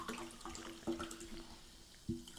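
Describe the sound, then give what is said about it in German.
Liquid pours into a glass, a soft continuous trickle with a rising tone and a couple of clinks of glass, quiet, with no talking. “Komm, ich schenke dir erstmal einen kleinen Wodka ein.”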